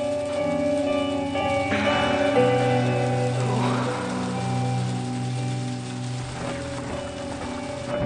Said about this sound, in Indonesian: Di luar masih hujan. Deras sekali.